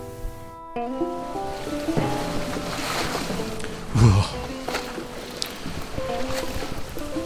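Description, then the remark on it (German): A boat moves across the sea in terrible weather as waves wash and splash around it, with a steady layer of sustained tones over the water noise and one louder thump midway. “Gut, dass wir zur See fahren heute.”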